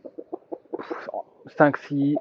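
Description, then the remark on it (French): Hens cluck in short repeated bursts as they are given snails to eat, ending with a couple of louder, drawn-out squawks, with no talking. “escargots par jour que je donne donc euh, aux poules et qui vont se faire un plaisir de les manger.”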